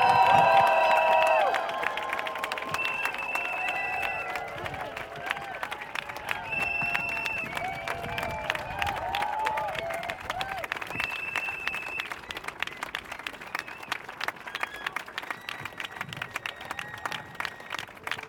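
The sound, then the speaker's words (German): A crowd at a political rally bursts into sustained applause at the end of a speech, with scattered cheers and whistles, dense clapping continuing steadily for the whole stretch after a louder opening surge. “Applaus”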